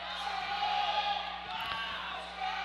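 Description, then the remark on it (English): The Exeter wrestling team bench shouts and yells at once during the second period of a match, a steady roar of excited instructions to their wrestler to circle his feet and face up to his opponent, continuing without a break. “The Exeter bench screaming him at him to, to circle his feet and face up to the guy.”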